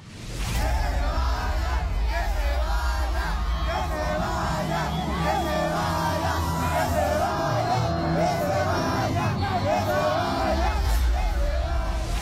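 A large festival crowd boos and jeers loudly and continuously, with yells and shouts rising over a dense, sustained roar of voices and a steady low rumble underneath.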